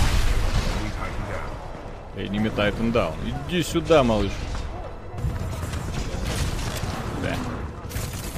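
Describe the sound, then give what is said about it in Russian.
Video game weapon fire, railgun blasts and gunshots, crackles in repeated sharp bursts throughout, fairly loud, while a man talks over the shooting in the middle. “Меня тут рельсу мне дали, я наслаждаюсь.”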